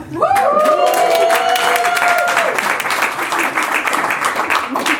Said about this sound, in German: Und jetzt zeige ich kurz, wo ich bin. Ich sitze nämlich an einer Bühne von 100 Leuten. Danke, Leute. Macht mal ein bisschen Krach.